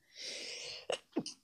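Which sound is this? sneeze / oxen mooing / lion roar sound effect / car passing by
sneeze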